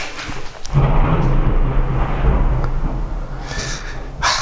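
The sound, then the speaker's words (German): A deep, loud rumble of thunder from a thunderstorm rolls in after a brief quiet start and sustains for several seconds, a low broad roar with some crackling texture on top, fading slightly near the end. “Wir haben mal wieder ein Gewitter.”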